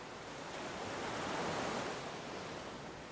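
ocean waves surf

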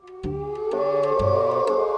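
wolves howling

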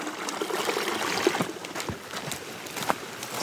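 creek water flowing

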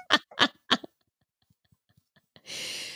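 goat screaming

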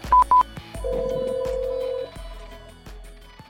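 phone ringing

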